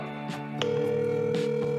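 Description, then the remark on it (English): A phone line's ringback tone: a steady electronic hum sounds partway in and holds unbroken to the end, over a faint continuous tonal background. “ringing.”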